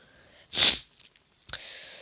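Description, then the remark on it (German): A single loud, forceful sneeze from someone with a bad cold bursts out sharply and ends quickly, followed by a short quiet pause and then a softer, steady hissing noise. No one speaks. “Oh, ich hab so übelsten Schnupfen.”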